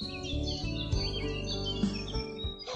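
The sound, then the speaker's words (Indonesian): A dense chorus of many birds chirping and tweeting at once, overlapping continuously and fairly loud throughout, with a steady low rumble underneath and no voices. “The two birds came back, bringing thousands of their flocks. The cave became very noisy.”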